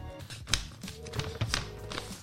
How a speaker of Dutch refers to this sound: Geritsel, geritsel.